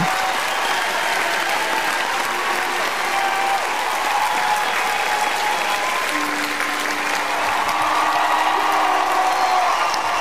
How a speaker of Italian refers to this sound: Cosa dite? Glielo facciamo un bellissimo applauso? Eh? Direi proprio di sì. Grande, grande, grande.